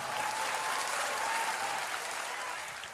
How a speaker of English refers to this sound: Do you really think that's why they clapped like that? No. Why did they really clap like that? Bringing the energy up.